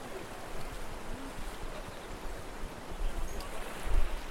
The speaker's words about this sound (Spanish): a 12 kilómetros del barrio Las Flores, el último de Barranquilla hacia el norte, en una furia casi silenciosa, hecha de marea y viento, está Bocas de Ceniza, el lugar donde el Magdalena se entrega al mar como una precipitación de agua incontenible.